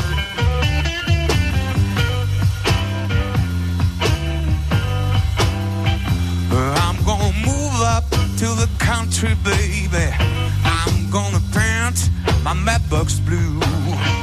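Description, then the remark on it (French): A local blues duo, playing together for 20 years, in a recording made by a radio station team; loud and steady throughout, with a full, thumping low end and a bending melodic line that rises above it partway through. “Il y a 20 ans qu'ils écument tous les scènes blues du coin et et ils sont en duo, ils sont très bons parce qu'ils s'entendent euh, parfaitement depuis le temps qu'ils se connaissent.”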